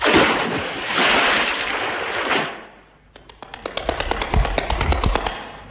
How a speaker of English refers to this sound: That night we camped near the great Zambezi Falls.